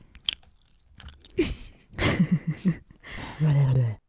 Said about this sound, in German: Doch, das müssen wir extra laut schmatzen bei ASMR.